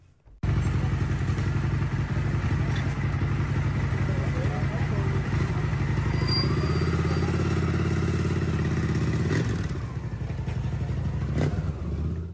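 A motorcycle engine runs loud for about twelve seconds, a steady throaty rumble that rises in pitch partway through as it revs, then settles before cutting off.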